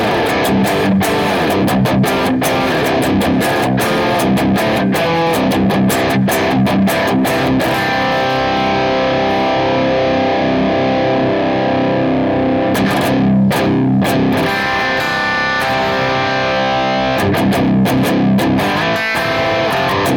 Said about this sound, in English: Uh, this is going to be the drone circuit running KT88 power tubes, and that is running a 412 Celestion Greenback cabinet.